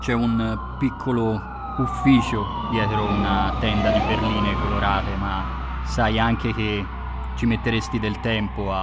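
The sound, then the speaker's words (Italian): A wailing police siren rises and falls steadily in pitch as it approaches, sounding fairly loud and persistent beneath a man speaking Italian throughout. “Le sirene sono vicine.”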